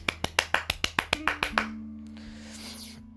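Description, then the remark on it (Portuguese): A quick, steady run of about ten sharp hand claps, ending after a second and a half as a faint sustained tone hums on alone. “Então, palmas para você, influência de TikTok. Uh, palmas.”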